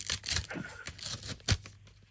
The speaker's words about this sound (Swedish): Jag, jag öppnar nu kuvertet med frågan.